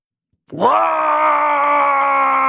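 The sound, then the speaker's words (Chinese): A man running in a race lets out a single loud, raw roaring shout of anger that starts abruptly after a brief silence and holds steady and sustained for about two seconds, harmonically rich and strained. “此时只能用这种原始的嘶吼来表达内心的愤怒与张狂，把所有的情愫通过这种嘶吼表达的全然彻底。”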